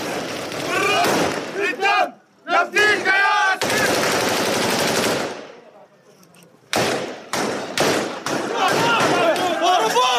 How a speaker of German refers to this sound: Als die ersten Schüsse fallen, drängen die Soldaten der Palästinenserbehörde sie ins Lagerinnere zurück.